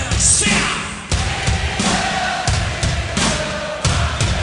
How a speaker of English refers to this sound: Oh, Got to be the live version with the crowd singing, right?